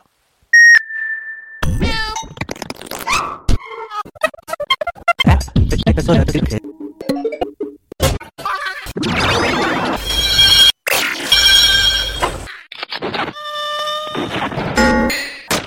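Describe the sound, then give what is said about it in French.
A rapid collage of unrelated sound snippets, chosen at random from a general sound library and arranged in arbitrary order, spliced together with abrupt cuts: a steady beep, insect-like buzzing, bursts of noise, loud horn-like harmonic blasts and chopped vocal fragments. “Ça consiste à agencer dans un ordre quelconque des fragments de son choisis au hasard dans une phonothèque générale.”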